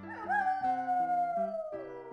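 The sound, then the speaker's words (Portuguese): A single long wolf howl rises quickly, then holds and slowly sinks in pitch over about two seconds, set against a soft backing of shifting musical chords. “Um lobo muito mal estava passando por ali e foi atrás de Carlinhos”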